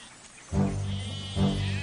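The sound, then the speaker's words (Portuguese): Two bleats from sheep and goats in a field, each starting sharply and wavering for nearly a second, fairly loud with no talking. “Jacó mandou chamar Raquel e Leia para que viessem ao campo, onde ele estava com suas ovelhas e cabras”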